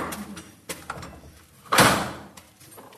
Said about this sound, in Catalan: Podeu, podeu comprovar aquesta sonoritat, eh? som a dins, perquè ara comença a plovisquejar una mica, i ara està obrint l'altra porta.